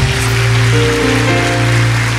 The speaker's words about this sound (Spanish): Si lo crees, denle un aplauso fuerte a Dios acá.